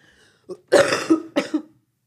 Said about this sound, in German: Warte, ich muss husten auch noch.